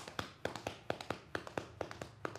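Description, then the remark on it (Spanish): Hollow coconut shells knocked in a steady clip-clop rhythm, a studio sound effect imitating horses' hooves trotting. The taps are crisp and evenly paced, with no voices over them. “Eh, para hacer el papel de mm, el sonido mejor de los caballos. Se cogían unos, cocos y se hacía así.”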